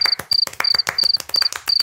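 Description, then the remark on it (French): A cricket chirps by rubbing its legs, in short, high-pitched trills, about six bursts repeating at a steady rhythm over two seconds, each backed by dry clicking pulses, with no voices. “C'est un bruit de cricket qui applaudit.”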